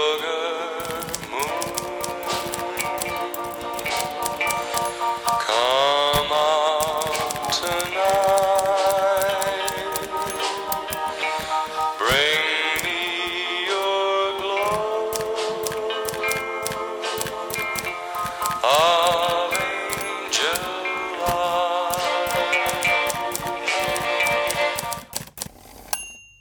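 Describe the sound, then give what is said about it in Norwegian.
Rapid, steady, busy clacking of typewriter keys runs throughout over a melodic musical backdrop, with occasional brief pauses in the typing. “Jeg er ikke helt ukjent med skrivemaskiner så langt derifra.”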